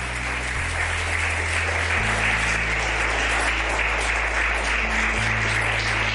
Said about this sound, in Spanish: Un aplauso por la gente que va a promover la vida.